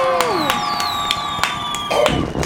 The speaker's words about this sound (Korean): 박수 한번 치세요. 박수.